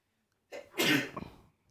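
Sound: sneeze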